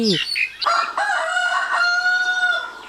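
A rooster lets out one loud crow, opening with a short rising note and stretching into a long, steady cry that drops off at the end.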